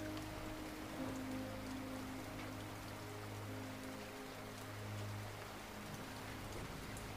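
Steady rain hisses evenly throughout, a dense patter with no pauses, while a few low sustained tones hum softly underneath. No one speaks.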